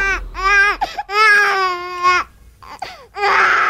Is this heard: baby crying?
yes